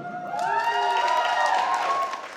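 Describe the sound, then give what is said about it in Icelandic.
A crowd at a women's strike rally in Iceland claps steadily, applauding a speech by Sólveig Anna, while voices cheer and whoop over the applause, which holds at an even, fairly loud level throughout. “En því að stinga höndum í vansanna væri kraftur lálauna hvenna meir en völd yfirmannanam samanlagt, saði Solveig Anna og hlautu klapp fyrir.”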